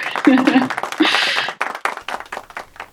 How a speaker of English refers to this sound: Such a great panel. Thank you to you both for joining us. Yeah, we can just give a round of applause or.